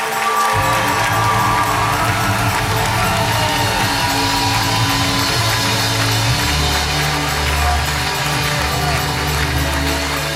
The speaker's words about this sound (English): One more time, let's give Jesus the biggest clap off.